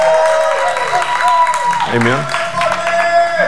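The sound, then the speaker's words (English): A church audience claps steadily to welcome a woman at a morning service, a dense, continuous patter of many hands, while sustained musical tones and voices ring out over the applause. “Give her a hand clap.”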